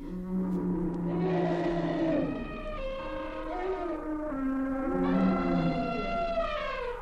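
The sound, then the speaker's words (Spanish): A herd of elephants trumpeting, several loud, brassy calls overlapping and rising and falling in pitch for several seconds, with no voices. “Ya no nos caben 400 elefantes.”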